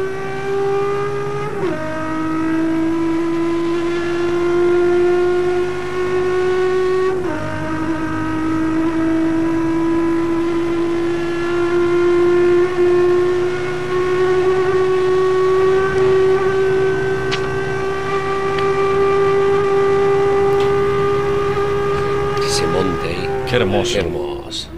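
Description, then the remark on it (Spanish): A loud racing car engine screams along the main straight after the last corner, its pitch dipping at two quick gear changes and then climbing steadily in one long, sustained howl. “la última curva y escuchen ahora la trepada del motor en la recta principal.”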